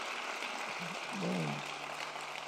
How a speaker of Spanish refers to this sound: Ahora sí, un aplauso.